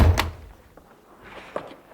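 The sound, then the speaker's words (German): A heavy thud as a person stumbles and falls against a door, which bangs open, followed by a couple of lighter knocks and rattles as it settles. No one speaks. “Ich bin gestolpert und gegen die Tür gefallen. Ja. Da ist sie aufgegangen.”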